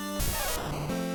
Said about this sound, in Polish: To był właśnie dźwięk Pikachu.